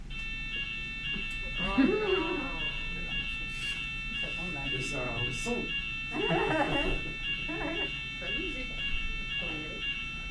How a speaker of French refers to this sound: C'est un incendie. C'est l'alarme incendie quand même. Hein. C'est l'alarme du feu. Ouais, c'est l'alarme incendie.